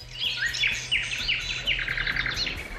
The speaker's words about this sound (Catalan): era que mono l'efecte de sonido del bosque que t'he posat. Eh? Aquí el Dani Jiménez s'ha lluït. El sí. Dani Jiménez m'ha trobat un efecte de sonido de bosque preciós.